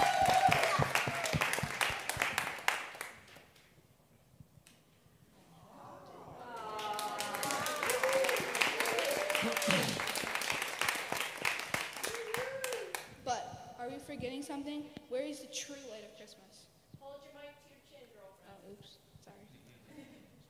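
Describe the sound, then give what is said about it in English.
A crowd at a Christmas celebration claps for the Christmas tree in a short burst, pauses, then breaks into a longer round of loud applause mixed with excited voices, before the clapping fades and people talk. “Let's give our let's give our let's give it a round of applause for our Christmas tree.”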